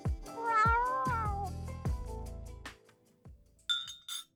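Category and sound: animal, cat meowing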